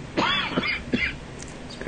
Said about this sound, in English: I've had a cold in the last week or two, and the, the cough yeah. is still sticking around.